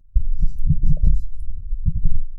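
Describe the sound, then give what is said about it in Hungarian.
Microphone handling noise as a sound engineer adjusts the microphone in front of the speaker's face: a loud, continuous stretch of low, muffled thumps and rumbling bumps with faint scraping above, lasting about two seconds with no speech. “elnézést, csak közben egy szakavatott szőrös hangmérnök megigazította egy picit itt a mikrofont az arcom előtt.”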